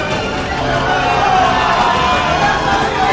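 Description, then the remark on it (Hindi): A dense, loud crowd uproar fills the scene, with many voices shouting and screaming at once in a continuous chaotic roar, as people stampede, screaming and running in all directions while being fired upon. “आवाज लोगों की भगदड़ चीख पुकार शोर गुल”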